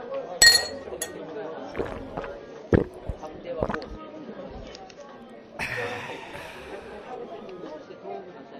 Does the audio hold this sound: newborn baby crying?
no